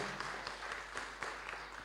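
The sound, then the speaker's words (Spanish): A crowd applauding for the Lord, with dense, steady clapping from many hands, loud and sustained, with a few sharper claps standing out. “un aplauso fuerte al Señor y así aprovecha de moverse y no morir congelado, idealmente.”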